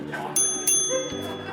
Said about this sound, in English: With the first bell, the dates begin.